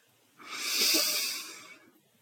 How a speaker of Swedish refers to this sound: Ta nu två helt vanliga djupa andetag in genom näsan och sen ut genom munnen. Så andas in.